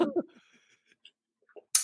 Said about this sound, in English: lady who's about to cough. Excuse me.